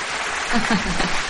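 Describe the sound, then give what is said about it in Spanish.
A brief burst of applause sound effect: dense, crackling clapping spread across a wide band for just over a second, with a faint voice murmuring underneath. “Aquí hay que meter aplausos aquí.”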